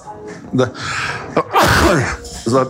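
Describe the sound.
A single loud sneeze, brought on by plants in bloom, bursts out midway. It is a sharp breathy explosion with a voiced tail, surrounded by brief vocal sounds and breaths.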